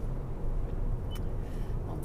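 Steady low rumble of a car interior while driving on the way to Apeldoorn, a constant droning road and engine noise filling the cabin with no one speaking.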